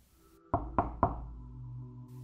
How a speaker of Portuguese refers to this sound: Então, em uma noite acordei com alguém batendo na porta da casa.